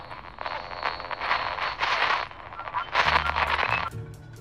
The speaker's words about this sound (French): Mais le trafic reste toujours aussi ralenti sur la piste détrempée. Edilson a beau klaxonner, rien n'y fait.